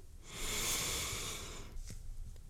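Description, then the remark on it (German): A single deep inhalation during a guided breathing and relaxation exercise, a long breathy airflow swelling over about a second and a half, followed by a brief pause and soft breath noises; no talking. “Und wir machen es mal zusammen. Einatmen”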